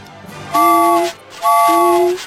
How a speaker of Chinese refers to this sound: 小火车拉响汽笛，给自己加油打气。